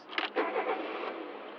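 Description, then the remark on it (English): A car engine turns over with a couple of sharp bursts, then settles into a steady roar as it revs and pulls away, with no voices. “The faster we go, the faster the meter runs.”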